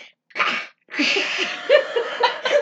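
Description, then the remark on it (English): A voice imitates a wall-mounted automatic air freshener with a dying battery: a short breathy hiss, a brief pause, then a longer, sickly, sputtering spray sound with raspy gurgles, fairly loud. “you put the canned air freshener in it, and it, but then like once the once the battery starts dying, it starts sounding sick.”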